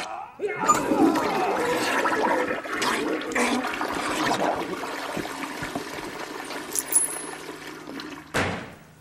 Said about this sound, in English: Hey, that, that sounds pretty nasty. How about a courtesy flush over there?